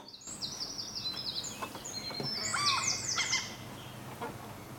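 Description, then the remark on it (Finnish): Several birds chirp and call over a steady outdoor background, with bright, overlapping high-pitched notes and whistles clustering in bursts. No one speaks. “Ja sitten voisi tulla vielä joku lintujuttu.”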